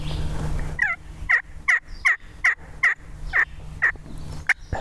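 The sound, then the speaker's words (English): A wild turkey gobbler, moving toward the listeners and getting closer, gobbles in a rapid, rattling series of about nine sharp bursts, moderately loud over a steady low outdoor hum, with no one talking. “Typically, the hens will go to the gobblers. But he's moving this direction. He's getting closer.”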